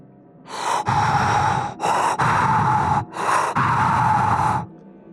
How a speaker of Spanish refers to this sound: Y yo creí que ella se asomaba al piso donde yo estaba y me soplaba en la cara. Justo cuando estaba por conciliar el sueño, escuché el tercer aliento.